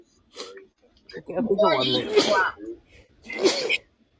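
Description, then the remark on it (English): A loud sneeze with a voiced, drawn-in buildup that breaks into a sharp noisy burst, followed a moment later by a second shorter, breathy burst. “Bless you.”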